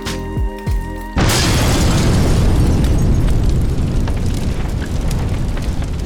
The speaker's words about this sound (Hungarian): Ekkor a ház egy másik részén álló, használaton kívüli gázpalack máig ismeretlen okokból felrobbant. És bár a detonációtól távol voltak, az úgynevezett lángégés mindannyiukat elérte.